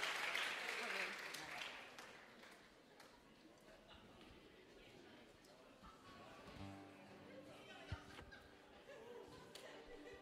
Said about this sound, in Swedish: Ge dem en applåd nu alla barn, så ställer vi oss upp hörni.